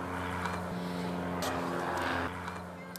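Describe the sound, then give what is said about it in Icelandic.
A small petrol-engined airplane flies over Austurvöllur in summer during a speech by Katrín Jakobsdóttir. It drones steadily and loudly, its buzzing motor tone holding a low, even pitch with a slight shift partway through, continuous for the whole stretch. “Saði Katrín Jakobsdóttir á Ísturvelli í sumar undir smák nýjúr bensínknúinni flugvél hérna í lokkin.”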